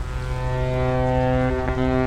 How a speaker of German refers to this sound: jetzt werden wir mit dem Schiff im Hafen anlegen.